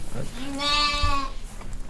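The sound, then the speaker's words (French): A lamb about one month old lets out a single clear, wavering bleat lasting under a second in a sheep pen, with soft rustling and faint movement around it. “À ce moment-là, on peut imaginer qu'un auditeur cherche dans la mélodie émise par les différents moutons s'il peut en distinguer un qui donnerait un aperçu plus juste de l'enclos dans lequel il se trouve.”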